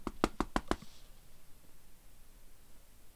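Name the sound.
repeated knocking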